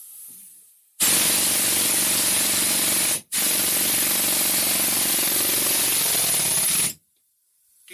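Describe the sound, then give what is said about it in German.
A heavy 15 kg hammer pounds in a loud, rapid, continuous rattle, running for about two seconds, stopping briefly, then hammering again for nearly four seconds before cutting off. No voices. “Und dann ist der Hammer 15 Kilo.”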